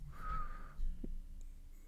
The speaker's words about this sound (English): I just heard a demon crow